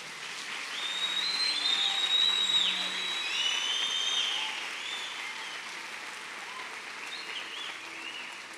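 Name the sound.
audience applause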